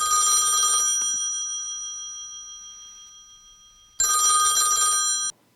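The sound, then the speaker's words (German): A telephone bell rings twice in loud bursts, each about a second long with a shimmering metallic ring that lingers and fades into silence before the second ring. “Ich bin wieder am Telefon.”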